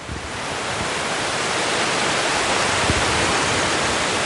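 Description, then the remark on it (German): The Sihl river in Switzerland flows gently, its water making a continuous, even rushing hiss that stays constant throughout with no voices. “Normalerweise fließt Ziel recht sanft vor sich hin.”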